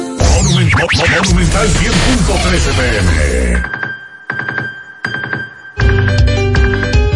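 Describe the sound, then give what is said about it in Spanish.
A loud, busy musical passage gives way to a repeating electronic ringtone-style alarm, pulsing in short bursts with a steady tone before fuller sound returns at the end. “Esta es la alarma que te pone a gozar y ahorrar chelitos con Vivi Economy”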